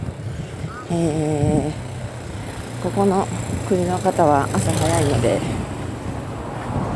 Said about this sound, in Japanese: まだ7時、朝7時ですが、結構街に人が出ているというかトラフィックがありますなのでちょっと騒音が入ってると思いますが、えー、それも合わせて楽しんでいただけたらと思います